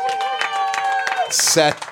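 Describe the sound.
Audience applause for a new columnist on the show, with scattered claps under whoops and cheering voices, building to a loud, hissy burst of noise near the end before breaking off.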